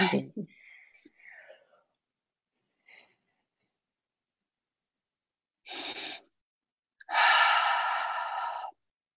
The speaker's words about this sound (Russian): Сейчас я выдохну. Давай, ты подыши, подыши. Давай. Мы, мы, мы, так, дышите вместе с нами в тему.